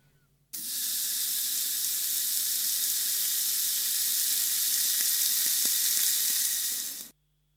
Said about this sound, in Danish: Er det en, er det en grill? Ja.